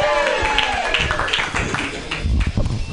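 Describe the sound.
A crowd claps and applauds steadily for a few seconds, a dense, continuous patter of many hands, with a few voices cheering faintly underneath.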